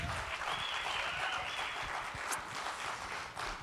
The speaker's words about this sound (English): Can we just clap for the Lord this evening?